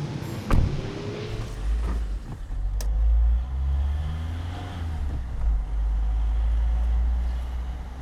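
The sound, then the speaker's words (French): A car drives along steadily, its low engine rumble and road noise continuous throughout, with a couple of brief clicks or knocks early on. “Ça te dit on va faire un tour, on prend ta voiture Ma voiture Ouais, ouais.”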